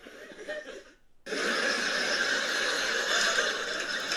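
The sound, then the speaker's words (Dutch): A burst of canned sitcom studio-audience laughter swells in suddenly after a brief pause and holds steady, a dense wash of many voices laughing together at full volume. “Maar het zijn gewoon uh, eh, comedy-series, dat, je, dat als er een grap wordt gemaakt dat, er dan, eh, dat je dan lach op de achtergrond hoort.”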